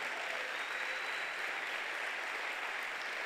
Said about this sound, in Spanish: Denle un aplauso porque tenemos pastor en esta iglesia.